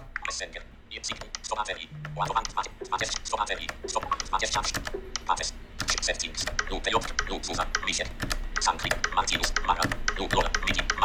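Rapid, continuous clicking of keys being typed on a Logitech MX Mechanical keyboard, fairly loud, with uneven bursts of keystrokes and a low background hum throughout.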